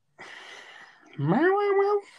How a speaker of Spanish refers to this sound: Ese maullido Ajá. era una forma de defender a su amo.